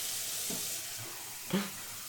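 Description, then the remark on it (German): A thin, steady stream of tap water runs from a sink into a glass with a soft, continuous hiss, with a faint clink partway through as the glass fills. No one speaks. “Aber ich hole mir ein Glas Wasser, während du.”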